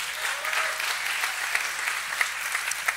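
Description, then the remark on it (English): A crowd applauds its leaders steadily, a dense wash of many hands clapping at an even, moderate loudness, with a few sharper claps popping out of the continuous patter. “Give them a big old clap.”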